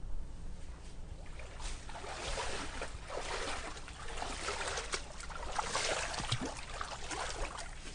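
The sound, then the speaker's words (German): Water sloshes and splashes continuously as someone wades carefully with a stick through shallow swamp water in the Everglades, with irregular swishes and gurgles, moderately loud, with no voices. “Wir stampfen mal ganz vorsichtig mit einem Stock durch das flache Wasser dort.”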